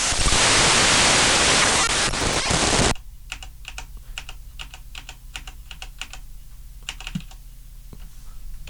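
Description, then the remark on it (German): Loud, dense digital hiss from a recording being scrubbed through fills the first three seconds, then cuts off abruptly, leaving a low hum and a quieter patter of irregular, keyboard-like clicks. No one speaks. “Ja, jetzt haben wir auch hier erstmal digitales Rauschen.”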